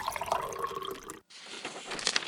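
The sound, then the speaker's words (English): Coffee pours steadily into a cup, with a rising, gurgling fill sound that briefly stops and then resumes, fairly quiet, with no talking. “She pours a coffee and settles in.”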